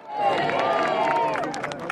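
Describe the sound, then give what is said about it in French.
Thousands of Britons outside Buckingham Palace clap steadily to welcome the new king arriving in the royal Rolls-Royce, a dense wash of applause mixed with scattered cheers and overlapping voices, continuous throughout. “Devant le palais, des milliers de Britanniques attendent leur nouveau souverain et l'accueillent par des applaudissements.”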